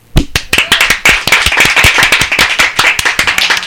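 A studio audience at Radio Traga bursts into applause welcoming a visiting band, many hands clapping in a dense, steady burst that stays loud for several seconds with no talking.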